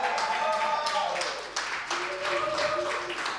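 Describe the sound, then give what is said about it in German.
A small audience in a bar applauds steadily for a few seconds during a live radio broadcast before a concert, the clapping dense, with cheering voices and whoops mixed in. “Ähm, oh, Publikum, ganz doch tollen Applaus.”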